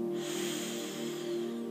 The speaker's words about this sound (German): Wir atmen mal ganz tief ein auf drei und auf fünf atmen wir aus. Atmen nochmal ein auf drei